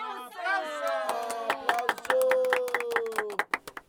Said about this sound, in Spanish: A quienes les mandamos un fuerte aplauso.